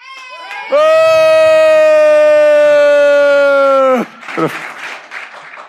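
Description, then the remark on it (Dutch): A loud, steady horn-like blast holds for a few seconds, then cuts off into a short burst of audience applause and cheering that fades toward the end. “Dat verdient een applaus.”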